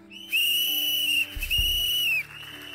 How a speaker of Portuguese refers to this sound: Vocês três que ganharam apito, no três vocês apitarem ou não? Pode ser ou não? Um, dois, três.